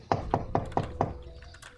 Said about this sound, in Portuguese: E ele bate na porta de um trailer.